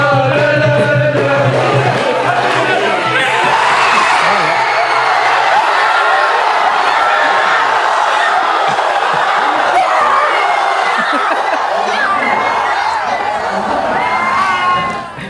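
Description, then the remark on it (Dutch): A crowd of hundreds of ecstatic Moroccan football fans watching a match cheers and shouts continuously, a dense roar of many excited voices that stays loud for the whole stretch before briefly dipping at the very end. “Ik heb hier gekeken met honderden uitzinnige Marokkaanse fans.”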